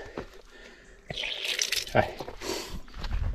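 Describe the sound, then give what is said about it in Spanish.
Water starts gushing from the Lumbrión outdoor fountain on a mountain about a second in, a steady splashing hiss that continues to the end, with a few faint vocal sounds underneath. “Vamos a ver si hay agua.”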